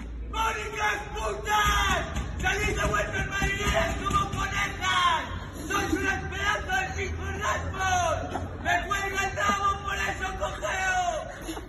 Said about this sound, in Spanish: Lo ha publicado ABC, es la misma escena, ventanas cerradas, los mismos insultos, se abren las ventanas, los mismos gritos.